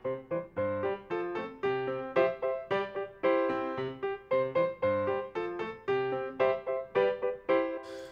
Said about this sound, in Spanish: Suena la cancioncita siempre que le dice a nuestros niños que llamen